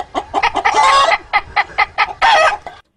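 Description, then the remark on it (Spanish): Rapid chicken clucks and squawks on a farm, with a man's voice imitating a hen mixed in among real hen clucking, loud, in choppy bursts ending in drawn-out cackles. “Entonces, lo, que lo hace heavy es que él está en una granja, tú sabes, haciendo todos estos sonidos. Sí. Entonces, tú oyes la gallina atrás y él haciendo.”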